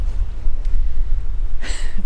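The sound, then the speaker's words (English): Blustery wind rumbles steadily against the microphone outdoors on a gravelly beach on a little spit of land by the coastal plain of the Arctic National Wildlife Refuge, in dewy, wet weather: a low constant buffeting, with a brief brighter hissing gust near the end. No voices. “We're on a little spit of land, um, gravelly beach, and a uh, little blustery, windy, dewy, wet.”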